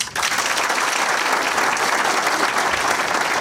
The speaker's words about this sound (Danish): Det var et pænt langt bifald.